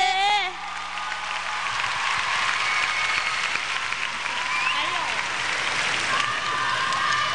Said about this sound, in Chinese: 特别贡献奖的得主，全场的朋友，掌声欢迎